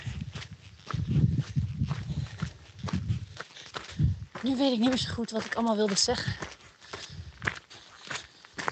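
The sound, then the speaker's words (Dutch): Steady, rhythmic footsteps crunch along outdoors, moderately loud, continuing under a man's voice talking for most of the stretch. “Dat is het ding met lopen dan.”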